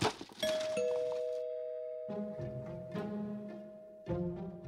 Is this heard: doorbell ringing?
yes